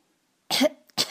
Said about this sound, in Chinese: 呸呸，好咸呐！他咳嗽了一会儿，